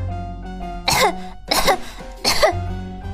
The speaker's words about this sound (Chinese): 他咳嗽不停，他好想哭啊，可是他不能哭。